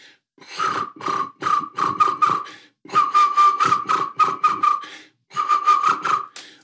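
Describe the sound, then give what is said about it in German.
A person whistles an imitation of a black woodpecker's flight call: three bursts of rapid, rolling, trilled notes, each lasting about two seconds with short gaps between, fairly loud. “Ja, der große, im Flug klingt der so.”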